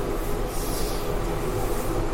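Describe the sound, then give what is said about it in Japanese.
A washing machine running with a steady, low mechanical rumble and hum, continuous and fairly loud throughout, with no voices over it. “あら始まりましたね私の大切な BGM 洗濯機が始まりました”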